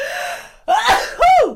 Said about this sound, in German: Gesundheit.